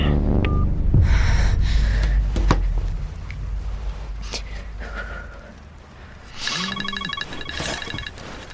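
A mobile phone rings with a bright, electronic melodic ringtone of quick repeated beeping notes, following a stretch of low rumbling and handling noises.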